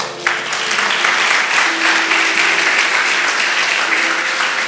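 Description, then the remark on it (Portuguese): A crowd applauds steadily, a dense, even wash of many hands clapping at a constant loud level for several seconds, with faint voices mixed underneath. “Essa é uma boa palavra para você que você ia dar um aplauso agora.”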